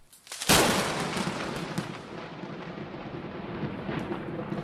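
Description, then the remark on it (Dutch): A thunderclap from a lightning strike bursts in with a sharp crack, then rolls into a long, heavy rumble that lingers and slowly fades, with no voices. “En dat, dat verhit dan ineens tot 30.000 graden. En dat is dus de bliksem.”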